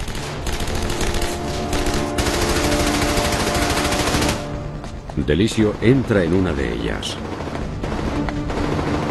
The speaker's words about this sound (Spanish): Mientras avanza escucha cómo disparan las ametralladoras encima de él, pero cuando sube, los disparos cesan.